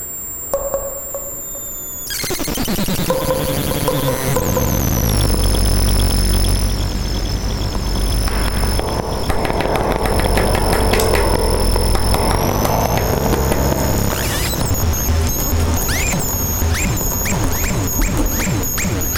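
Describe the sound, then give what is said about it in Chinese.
After a couple of quiet seconds, a loud, chaotic party din from downstairs erupts and keeps going: a dense wall of noise with steady high tones and constant clattering bursts. “哎，楼下有人开趴哦！”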